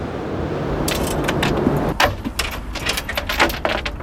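A band unloading drums, cymbals, cables and electronics from a small black trailer behind their car at the Maker Faire on the Brno exhibition grounds: irregular clunks, rattles and metallic clinks over a steady low outdoor rumble, growing busier in the second half. No one speaks.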